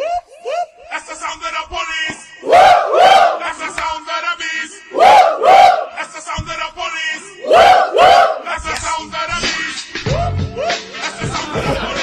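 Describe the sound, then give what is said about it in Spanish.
A group of people shouting together in loud, repeated bursts, roughly three big chant-like surges separated by brief lulls, with crowd noise and scattered chatter in between. “¿Quieren, seguir, gritando?”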